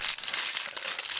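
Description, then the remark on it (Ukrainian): An empty cigarette pack being crumpled, a dense run of crisp crinkling and crackling that stays busy and steady for about a second, with no voices. “А перед тим я я ще родів е, е, цим пачку із під цигарок, це звучить приблизно ось так.”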